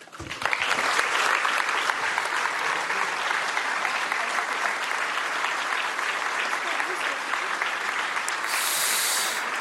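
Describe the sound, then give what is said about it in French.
Sustained applause from a large audience for Rachida Dati after her speech, a dense, steady wash of clapping that starts abruptly and holds at full loudness for nearly ten seconds without letting up. “Applaudissements pour euh, Rachida Dati.”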